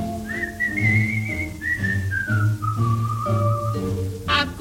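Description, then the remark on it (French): A person whistles a slow, smooth tune in long gliding notes, clear, over steady low instrumental accompaniment, with no talking. “Tandis que flotte sans bouchon, il sifflote une chanson.”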